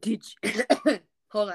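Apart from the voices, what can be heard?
coughing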